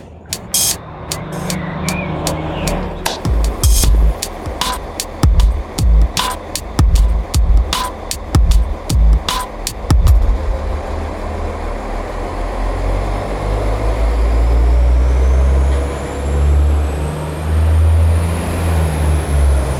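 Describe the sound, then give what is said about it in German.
A train rolls past, a run of sharp rhythmic clacks from the wheels giving way to a steady, heavy rumble that carries on to the end. “Ähm, ich klatsch mal gerade und wir nehmen den Zug noch auf.”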